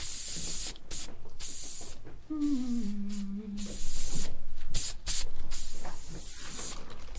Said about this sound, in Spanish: Nada más que brillo. spray. Importante ahí que se fije tu cabello.